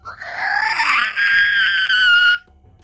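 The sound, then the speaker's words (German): A sustained, high-pitched scream from behind doors, heard from the west and north, rises in pitch and holds for over two seconds with harmonic overtones, then cuts off abruptly, leaving near silence. “hohe Schreie. Aber es passiert noch nichts.”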